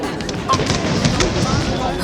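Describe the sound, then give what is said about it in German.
A string of sharp, snapping firecracker cracks pops off in quick, uneven succession over a steady, busy background murmur, each burst short and bright, set off in broad daylight during a national holiday festival with parades, music and fireworks in the small town of Venice. “Das war ein Feuerwerkskörper.”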